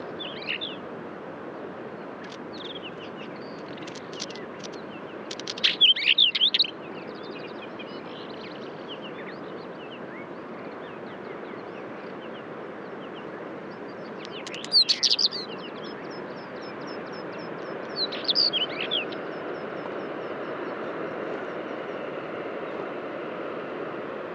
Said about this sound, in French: Alors voilà un long champ en vol du Monticole de roche. Il y a en sa compagnie du traquet boiteux, avec des sons plus chiffonnés.